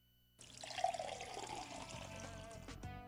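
A toilet flushes, a sudden loud rush of water that surges and gurgles, then keeps draining steadily for a few seconds. No one speaks.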